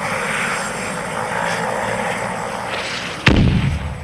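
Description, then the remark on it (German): A steady droning engine hum of an approaching delivery drone is cut off near the end by a sharp, loud blast as an air defense system shoots it down, with a brief rumbling tail. “Drohne im Anflug. Drohne im Anflug.”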